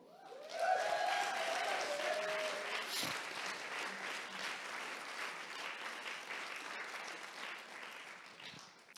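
A large audience breaks into sustained applause, a dense wash of clapping that swells quickly and holds steady for several seconds before tapering slightly, with a few faint cheers early on.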